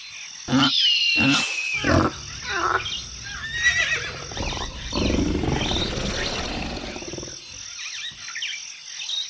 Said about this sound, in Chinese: 不是吧？那是老虎哎！